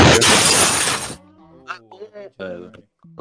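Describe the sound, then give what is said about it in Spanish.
A loud, harsh sound effect of a motorcycle exploding bursts out with a crashing, shattering noise for about a second and cuts off abruptly, followed by people talking. “fue la explosión de la moto.”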